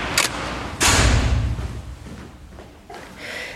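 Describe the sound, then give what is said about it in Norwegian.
A door opens with a short click followed by a heavy thud and a low rumbling knock, then quieter shuffling and a soft hiss as it settles. “Vær så god. Døren er åpen.”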